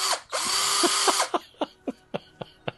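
A power drill whirs: a quick buzz, then a sustained high motor whine lasting about a second, followed by a series of short, evenly spaced revving bursts.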